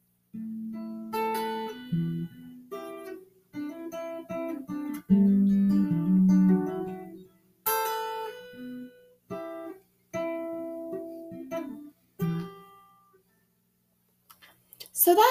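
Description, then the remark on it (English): The very minimal beginning of a song, a short, fast instrumental intro played with actual chord shapes, strummed and plucked, bright ringing notes arriving in quick clusters with brief pauses between phrases, moderately loud with no voices. “just the very minimal beginning. It is very fast, very pretty.”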